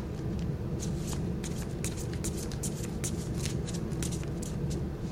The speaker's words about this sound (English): Okay, so now I'm going to shuffle the cards, and one of you will tell me to stop.